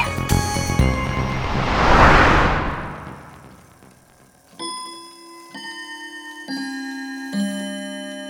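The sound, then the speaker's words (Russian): A clock ticking steadily and clearly, with bright ringing chime tones sounding over it after a swelling whoosh at the start; no one speaks. “Сегодня мне в руки попались часы, которые невозможно было починить.”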